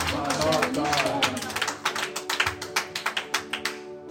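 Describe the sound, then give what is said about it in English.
A crowd claps their hands at a speaker's call to clap, scattered and dense at first, then settling into a steady rhythmic beat. Voices murmur and hum underneath throughout. “Somebody clap your hands and say, I shall not die.”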